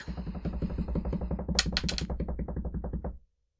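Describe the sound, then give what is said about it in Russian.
A drum roll tapped out by hand before tossing an Australian five-cent coin: a fast, steady stream of sharp taps lasting about three seconds, with a brighter, more clattery stretch in the middle before it stops abruptly. “Ну давай, барабанная дробь.”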